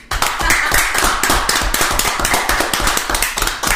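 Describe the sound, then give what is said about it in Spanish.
A dense burst of hand clapping, loud, with many rapid overlapping claps filling the whole stretch steadily, as a small group gives a round of applause during a conversation. “Quiero hacer una pausa y quiero que le demos un aplauso”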